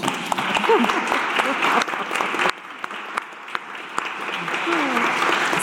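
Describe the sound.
A crowd claps steadily in dense, continuous applause, loud and close, with a few voices calling out faintly beneath the clapping.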